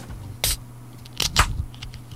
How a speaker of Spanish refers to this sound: Aparte hizo hasta, se sintió hasta la efervescencia de la cerveza adentro.